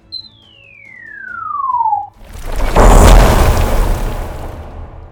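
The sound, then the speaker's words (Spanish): A pyramid collapsing onto one of its sides, raising a great cloud of sand: a steady high whistle slides downward for two seconds, then a loud, heavy crash bursts out and rumbles on for about three seconds before fading slightly. “Perdió el equilibrio y cayó con un gran estrépito sobre uno de sus lados, levantando una gran nube de arena.”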